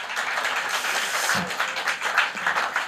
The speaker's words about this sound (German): Ihr dürft auch auf die Bühne klatschen, nicht nur runter. Das ist okay.